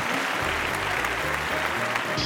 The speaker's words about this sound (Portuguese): Quero uma, uma, salva de palmas eletrônica, hum. por favor, para os nossos convidados aí. Uma salva de palmas.